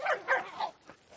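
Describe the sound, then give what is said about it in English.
A dog lets out three quick, sharp barks in a row, followed by a couple of softer yips, heard on its own. “you have to be so noisy.”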